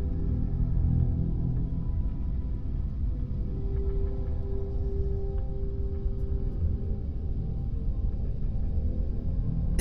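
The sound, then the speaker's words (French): A deep, steady rumbling drone of dense noise fills the space at an even, moderate level, with a faint humming tone drifting through the middle. No voices, no breaks. “Un bruit sourd et pénétrant vous enveloppe, le bruit blanc céleste.”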